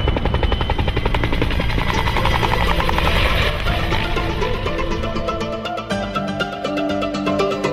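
A helicopter flying with a steady, loud rotor thump, its rapid rhythmic chopping joined by a broad engine whine and roar that persist throughout with little change.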